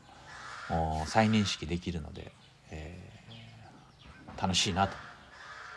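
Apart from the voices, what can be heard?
bird calling outside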